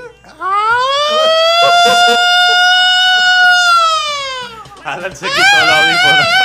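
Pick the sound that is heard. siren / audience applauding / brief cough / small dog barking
siren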